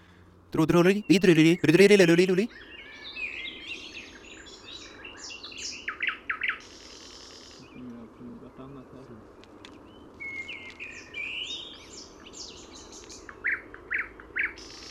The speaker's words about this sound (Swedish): Trädgårdssångarna är i Uppland från slutet av maj till augusti då de påbörjar sin flyttning till Afrika.